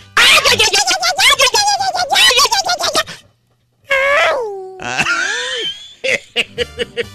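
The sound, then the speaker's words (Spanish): A loud, sped-up, squeaky Apache war-cry yell, pitch-altered to a squirrel-like voice, warbles rapidly for a few seconds, then trails into gliding high whoops and a string of short, chirpy bursts, with no talking. “Grito Apache alterado del ardillo para Chevo Rojas.”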